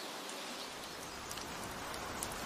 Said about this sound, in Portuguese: A chuva caía forte enquanto percorríamos uma trilha alternativa.